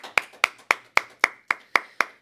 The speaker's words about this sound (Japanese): 先発坂東優吾皆さん拍手をよろしくお願いします